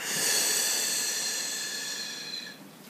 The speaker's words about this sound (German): Wir atmen wieder durch die Nase ein. Und wir atmen durch den Mund aus.